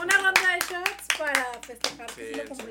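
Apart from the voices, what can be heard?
hands clapping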